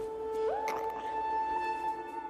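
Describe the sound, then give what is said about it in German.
A voice imitates a small creature's grunt: one sustained, squeaky hum that slides upward in pitch and holds for about two seconds, heard alone at moderate volume. “Das Kind grunzt so”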